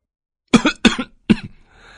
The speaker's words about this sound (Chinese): 弯腰猛咳嗽，在凤追的瞪视下，缓了好一会儿，才缓过劲儿来